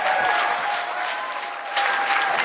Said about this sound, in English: Praise God. Everyone give Jesus a big round of applause tonight.